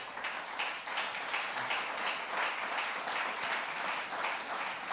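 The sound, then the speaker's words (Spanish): Steady applause from a crowd, a dense wash of many hands clapping at an even loudness for the full five seconds, with no voices standing out. “Dele un aplauso, Señor, por favor.”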